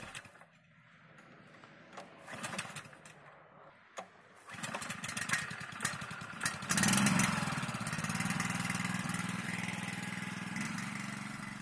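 A small bore well water pump engine sputters and catches after a few seconds, then runs steadily with a loud, buzzing drone and no talking; the pump draws groundwater to spray onto dry peatland areas.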